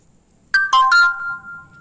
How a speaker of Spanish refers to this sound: Perdón si se oían los, los, sonidos, pero era el pinche celular que no dejaba de sonar.